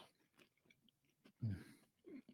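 Close, crunchy chewing of a cracker: a few soft bites, then a louder crunching burst and another chew near the end, with no talking.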